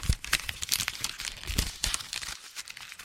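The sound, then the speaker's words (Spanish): A sheet of paper, the 'scorpion sheet' for a prize draw, being crinkled and handled, with a rapid series of sharp, crackly rustles and crunches of uneven rhythm, fairly loud with no talking over it. “Todo el mundo va a llevar premios, pero vamos a ver qué hago con la hoja del alacrán. Aquí está, escuchen.”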